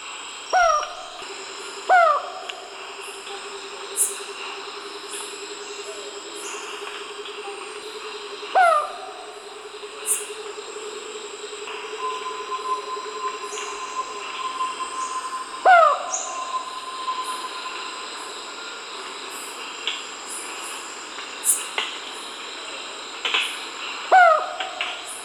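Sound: dove cooing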